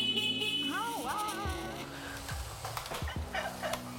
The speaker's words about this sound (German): Ja, wir machen schon, oder? Ja, und einmal hupen bitte.